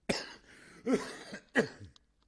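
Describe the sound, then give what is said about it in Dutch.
Three sharp coughs in quick succession, fairly loud, each a harsh burst with a brief rasp, the last trailing into a short throaty sound before silence. “Ik moest er helemaal van, eh, van hoesten.”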